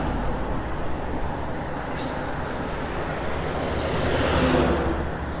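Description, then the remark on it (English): Heavy machines rumble along a road outdoors in the morning, heard from a bicycle, a steady low roar with wind-like hiss that swells louder toward the end as one passes by. “Big machines going down the road.”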